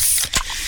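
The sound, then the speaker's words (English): A can of Pepsi cracks open with a sharp pop, wrapped in a steady fizzing hiss that continues through the brief moment, no voices present. “Oh, yeah, that's the sound of a freshly opened fizz filled Pepsi.”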